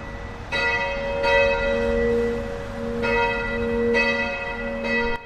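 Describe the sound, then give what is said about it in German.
Church bells ring in a steady, uneven peal, five or so clanging strikes layered over a long resonant hum, fairly loud, with no voices; the bells of the Catholic church St. Aldegundis in Rheindorf, Leverkusen. “Dreimal am Tag läuten in allen katholischen Kirchen die Glocken.”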